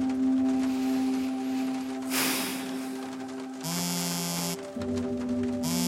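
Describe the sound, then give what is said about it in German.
A mobile phone rings with a steady, buzzing electronic drone, broken by two harsher, noisier bursts partway through. There is no talking. “Wieder klingelt ihr Handy.”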